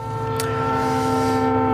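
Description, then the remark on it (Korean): A loud, sustained train horn blares with steady harmonic tones over the rumbling clatter of a train running along the tracks, continuous throughout. “예, 기차 기적 소리와 기차 달리는 소리입니다.”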